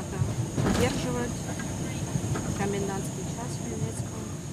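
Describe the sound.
A steady low rumble of a moving passenger train bound for Vinnytsia, its final station, heard from inside the carriage, constant and fairly loud, with faint voices murmuring underneath and a thin high whine running throughout.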